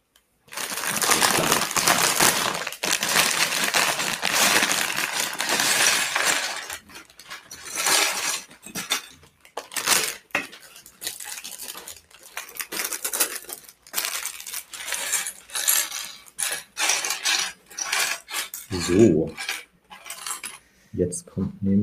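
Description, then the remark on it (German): Small plastic toy bricks clatter and rattle as the second bag of a building set is emptied, a dense cascade for several seconds, then sporadic clicks and light taps as pieces settle and get sorted. “bei mir kommt jetzt die zweite Schalt Tüte”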